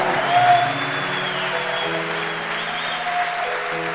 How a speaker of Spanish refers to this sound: Aplauda sobre su cabeza.